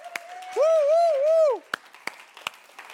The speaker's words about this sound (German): Danke vielmals, mega coole Band. Komm, ich gebe denen einen Applaus.